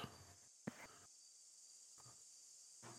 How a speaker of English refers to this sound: Um, let me get uh, let's see peaceful evening going. Get rid of the meditation sounds. Bring up the owls, the cuckoos, the insect therums. How does that sound?